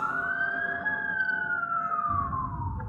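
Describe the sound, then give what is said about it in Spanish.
An ambulance and police emergency siren wails in one long, slow sweep, rising slightly then gliding down in pitch, loud and steady over a low rumbling engine noise, with no one speaking. “Volviendo del laburo encontré una ambulancia y un montón de policías.”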